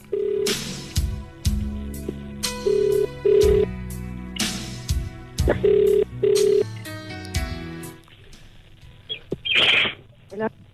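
A telephone rings on an outgoing call, with short repeated tones mixed among loud, sharp percussive hits and bursts of noise, prominent throughout.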